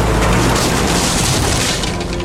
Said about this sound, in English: So ever aware about protecting the crime scene, two police cruisers smashed the fence down.